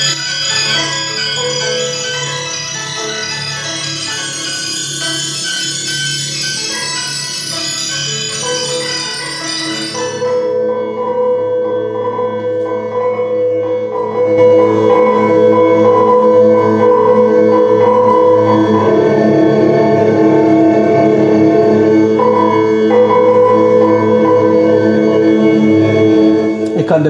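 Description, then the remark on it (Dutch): A dense, shimmering synthesized texture of stretched sample grains, bell-like and layered, bright and airy at first, then settling into a thicker, sustained drone with steady tonal bands. “Hij heeft een heel klein deeltje van het geluid gepakt en die stretcht die over andere kleine deeltjes die je hier eh, voorbij ziet schieten.”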